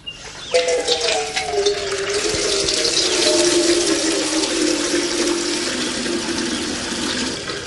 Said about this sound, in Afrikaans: Jy gryp hierdie ou spons en dan spuit jy bietjie seep daarop en dan vryf jy al rondom die binneste rand van die bad. Nein, dan droog jy seker die kraan oop en was die seep uit, né, ne,